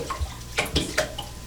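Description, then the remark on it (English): A few short, sharp splashes of water come in quick succession, moderately loud, made by an active turtle splashing in water. No one speaks. “The turtle, that turtle is active.”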